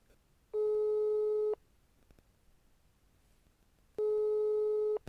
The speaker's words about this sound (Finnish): Minäpä otin neuvostavaarin ja rimpautin tälle soittajalle.